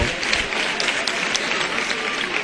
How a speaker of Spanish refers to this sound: Los aplausos aquí del público congregado a las puertas de la iglesia de Santiago.